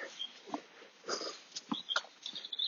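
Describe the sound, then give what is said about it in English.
A dog sniffs and snorts in short, irregular bursts of breathy noise, some sharper than others, with brief pauses between them and no talking. “And there's a dog at the end there”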